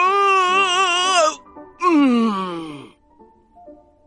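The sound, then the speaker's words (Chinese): In a told story, a voice imitates a big yellow cat opening its big mouth in a big yawn: two long, loud, quavering moans, the second sliding down in pitch before trailing off into quiet. “妮妮正说着，就见那只大黄猫张开了大嘴巴，打了个大哈欠，啊！”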